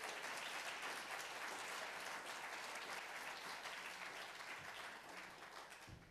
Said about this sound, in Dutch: En ik zou willen zeggen, heet ze heel hartelijk welkom met een applaus.